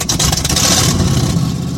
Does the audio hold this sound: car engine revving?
yes